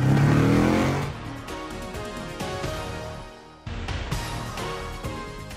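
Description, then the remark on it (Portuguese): A car engine revs hard and accelerates, its pitch climbing through gear changes with a brief dip midway before surging again. Loud, with no talking. “engata primeiro aí, vambora!”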